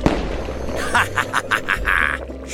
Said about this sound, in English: Yes, yes. If I add strontium or lithium, I get red fireworks.